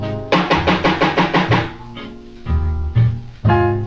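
A quick, even run of about seven loud knocks on a door, followed by a few slower, heavier thumps spaced apart. No one speaks.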